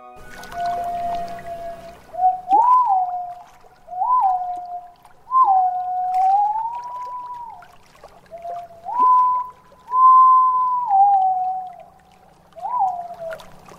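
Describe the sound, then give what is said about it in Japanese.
A white-bellied green pigeon (aobato), about 33 cm long with an olive back and bright yellow-green head and breast, calls by a mountain lake with a series of drawn-out, wavering, flute-like whistles, rising and falling in mournful phrases repeated several times, clear against a quiet background with no talking. “青バトです全長およそ33センチ背中側はオリーブ色頭から胸は明るい黄緑色をしたとても美しい鳩です”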